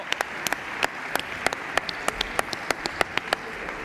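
A small group applauds the award presenter at a music awards event in Asturias, with sharp, irregular hand claps layered over a steady patter of clapping at a moderate level, and no voices.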